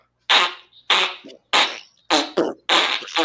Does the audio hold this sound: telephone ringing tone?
no